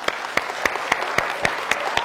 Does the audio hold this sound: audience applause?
yes